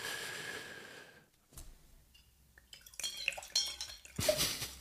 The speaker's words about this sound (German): Dann gieß mal ein.